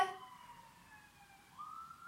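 An emergency vehicle siren wails outside, its tone gliding steadily downward before sweeping back up near the end, heard on its own with no talking over it.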